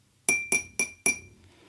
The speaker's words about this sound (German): haut an ihr Glas.